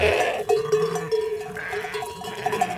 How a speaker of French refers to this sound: Euh, on y entend des troupeaux euh,